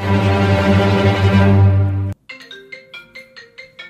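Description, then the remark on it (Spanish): An orchestra rumbles out a loud, dense, sustained roar of low strings that imitates thunder. It cuts off abruptly, followed by lighter, evenly repeated short notes. “Y los truenos son esto.”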